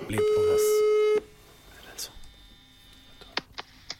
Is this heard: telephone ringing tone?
yes